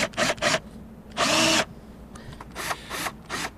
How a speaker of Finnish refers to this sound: Ei, ei mitenkään, mutta pora, tota, pora on vähän tuntematon vielä.